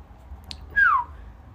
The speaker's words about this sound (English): I don't know how whistling is going to come across.